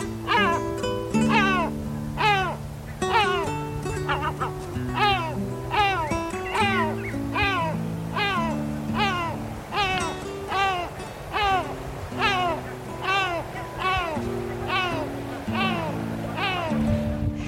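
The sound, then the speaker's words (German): Great black-backed gull calls ring out in a long, steady series, each a loud, harsh, wailing note, repeated roughly once a second over a low, sustained droning backdrop. “Das war die Mantelmöwe.”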